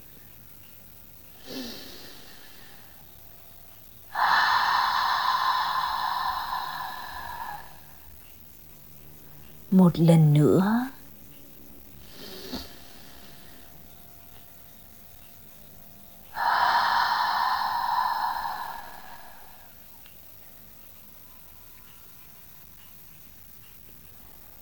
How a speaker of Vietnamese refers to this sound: hít vào qua mũi rồi thở ra thật hết qua miệng